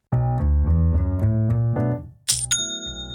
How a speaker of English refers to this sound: you know what that's the sound of? I want to guess, but I'd rather you tell me. it's the sound of another sale on Shopify.